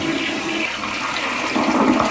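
A toilet flushes, a loud continuous rush of swirling water that swells slightly toward the end, with no voices present.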